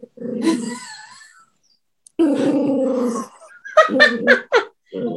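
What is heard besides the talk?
dachshund growling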